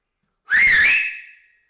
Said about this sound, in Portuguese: Ouviu isto, forasteiro? Alguma vez viu mulher que assobiasse assim com dois dedos na boca?